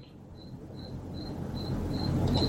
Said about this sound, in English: Yep, they're definitely they're definitely Charlene frogs.